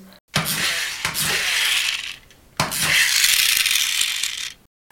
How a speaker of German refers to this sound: Ein kleines Spielzeugauto mit Federantrieb. Du weißt schon, man zieht es so nach hinten, lässt es los und paf, flitzt es los.